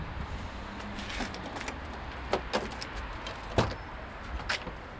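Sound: car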